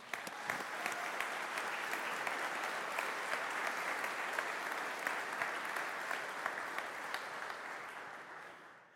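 A large church audience claps steadily for about nine seconds to honour a longtime member, a dense, sustained wash of applause from many hands that holds level before tapering slightly at the end, with no voices over it.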